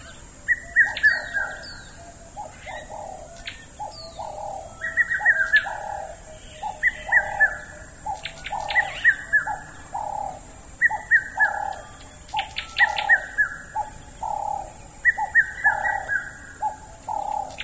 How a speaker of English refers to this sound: but you know the bird song itself as well is also very very um, unique and very very typical for that place and also for that time of year